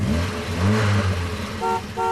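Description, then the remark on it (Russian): A brief produced radio jingle introducing a traffic report, built around car sounds: a low engine hum swells, then two short bright honks of a car horn toot near the end, loud. “Друзья, прямо сейчас в прямом эфире готовы вам, вас познакомить с дорожной обстановкой после небольшой отбивочки.”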